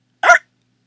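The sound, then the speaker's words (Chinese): A single loud, abrupt hiccup, a short voiced gulp that breaks off quickly, heard alone in silence. “就在这时，大家又听到一声巨响。”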